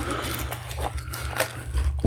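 Plastic film is peeled off, giving a crinkly, crackling rustle with a few sharper bursts over a steady low rumble. It's fairly quiet, with no voices.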